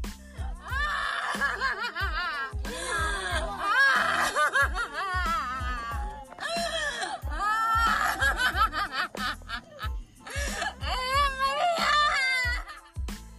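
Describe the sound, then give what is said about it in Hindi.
A grieving mother wails and cries loudly, her voice rising and breaking in long, wavering sobs with brief gasping pauses, continuing for the whole stretch. “ये उस माँ की आवाज़ है जिसे सुनकर किसी का भी दिल दहल जाएगा”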